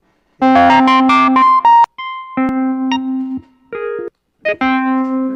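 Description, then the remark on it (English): Electronic keyboard notes and chords, played while trying out the keyboard's piano sounds, ring out loudly in short bursts separated by brief pauses, with a bright, piano-like tone sustaining steadily. No one speaks. “Those pianos, man, that's cool.”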